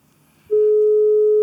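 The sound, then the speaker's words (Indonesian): A loud, steady electronic phone ringing tone cuts in after a faint low murmur and holds unbroken to the end, as a phone call is being placed and rings through on the line. “Makanya mari kita telepon. Kita hubungi Mas Mobi sebentar.”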